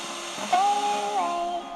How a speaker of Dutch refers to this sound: Bij mijn radio moet je zoeken naar de zenders. Ik draai aan de knop. Langzaam. Voorzichtig. Ruis.